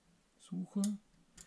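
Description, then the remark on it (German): The waist-level finder hood of a Kiev (Big Six) camera snaps open in a quick series of sharp mechanical clicks and clacks, fairly loud, with a final lighter click after a short pause. “Also diesen klassischen Kasten habt ihr gerade gehört, der dann so aufklappt. Das war das Geräusch von der Big Six.”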